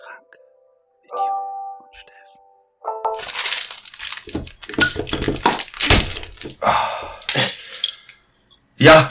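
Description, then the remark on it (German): Someone hurriedly rummages through objects searching for a bottle opener: a couple of clear metallic clinks, then a busy stretch of clattering, rustling and thumping as things are shoved around and knocked together. “Es wurde hektisch in meinem, in meinem äh, Podcastzimmer. Ich habe beim Intro einen Flaschenöffner gesucht und äh, habe ihn in letzter Sekunde gegriffen.”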